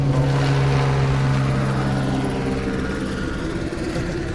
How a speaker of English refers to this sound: this city's so big, people don't travel by cab if they have a certain um, wage. They travel by helicopter, yeah. right? Yeah. yeah. it's the second biggest uh, helicopters traffic in the world.